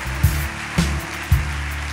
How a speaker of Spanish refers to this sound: Dele un aplauso fuerte. Yo no sé si me está escuchando. Vamos, dáselo fuerte, fuerte, fuerte.